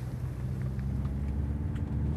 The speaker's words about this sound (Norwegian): Det er Hustri, her eh, ytterst på landets eh, østligste nes, og det er på tide å komme seg til Kiberg. Direktør Frans Arne Stylegard ved Varanger museum kjører den ytre kystveien, nesten ikke noen allfarvei dette